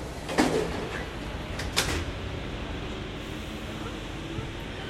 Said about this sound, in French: Le signal sonore retentit et les portes se fermèrent.